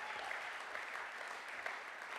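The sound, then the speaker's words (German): A crowd applauds a band steadily, a dense wash of many hands clapping at once, sustained and even throughout with no voices standing out. “Applaus für diese Hammerband.”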